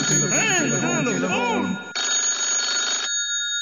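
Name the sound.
telephone ringing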